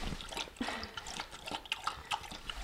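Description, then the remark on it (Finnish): A thirsty Jämtland spitz elk-hunting dog laps water indoors in a farmhouse, a quick, uneven run of wet slurps and small splashes repeating for a few seconds with no one speaking. “Hän vain eh, loiski tuota vettä menemään.”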